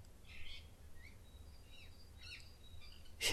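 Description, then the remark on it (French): Birds chirp and whistle in the morning in scattered high calls over a low steady rumble, some notes brief and bright, others sliding, soft, with no voices. “Et, entendant les oiseaux qui chantent ce matin”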